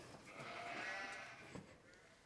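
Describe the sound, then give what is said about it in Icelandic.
A single sheep, one of grandfather's sheep named Auður, Helga and Lilja, lets out a long, wavering bleat, fairly loud, fading out over a couple of seconds with a faint knock near the end. “Og númer tvö, hvað heita kindurnar hans afa?”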